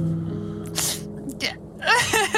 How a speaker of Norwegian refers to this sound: Hvorfor gråter du